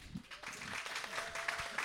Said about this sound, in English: So we record them doing a round of applause. Do a little quick round of applause for a special edition.